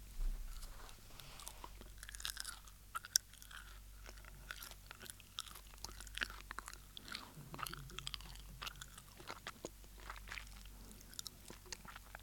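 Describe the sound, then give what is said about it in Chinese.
Steady crunchy chewing of tazukuri, small dried sardines cooked very dry in soy sauce and sugar and sprinkled with sesame, with repeated sharp, crackly bites in an irregular rhythm over about twelve seconds, fairly quiet, with no talking. “好了，我们再继续吃这个东西吧，硬邦邦的哈。”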